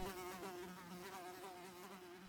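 A housefly buzzes steadily, its droning hum wavering slightly in pitch throughout the brief moment, with no voices present.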